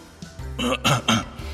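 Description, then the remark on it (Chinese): A short, throaty cough from an old man, two or three rough bursts in quick succession, like an awkward clearing of the throat, of moderate loudness with no talking over it. “老者似乎意识到了什么，尴尬的将身体挪开，微微的咳嗽了一声”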